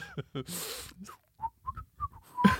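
A person whistles a short, choppy tune of four or five brief, clear notes, moderately loud, after a moment of breathy noise and a bit of voice at the start.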